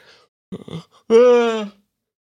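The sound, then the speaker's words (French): A single yawn: a short breathy intake, then a long drawn-out voiced exhale that slides downward in pitch and fades, with silence on either side. “et voilà, et voilà, j'ai essayé de pas bailler.”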